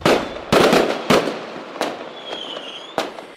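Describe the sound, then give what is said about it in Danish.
Several loud firework bangs burst in quick, uneven succession, each followed by crackling decay, with a thin whistling streak rising midway through and a final sharp boom near the end. “fyrværkeri, det øh, skal begrænses til bare to dage fremover.”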